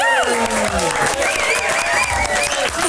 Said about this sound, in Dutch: Eh, mag ik een uh, heel groot applaus voor niemand minder dan …!